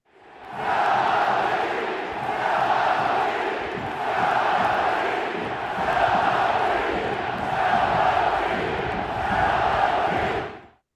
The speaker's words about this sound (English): Nearly 30,000 fans packed the house as the Oakland A's won their seventh straight. They are no longer statistically, record wise, the worst team in baseball. In fact, they won the evening because they got 27,000 strong to chant simultaneously this.